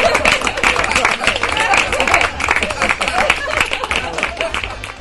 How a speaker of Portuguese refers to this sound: Palmas. palmas.